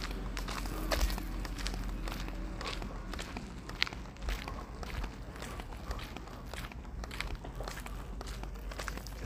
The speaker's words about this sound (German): Außerdem knackt, wenn ich die ganze Zeit gehe, die Flasche Wasser total. Ich weiß nicht warum, aber wahrscheinlich, weil die ganze Zeit zwei Flaschen aneinander knirschen.